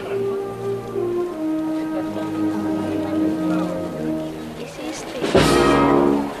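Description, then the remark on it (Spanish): A brass band plays a slow, solemn Holy Week processional march as a float is carried out of the Church of the Anunciación, with sustained, layered horn notes and a loud crash of percussion breaking in near the end, all heard outdoors amid crowd ambience. “y suena la marcha Virgen del Valle”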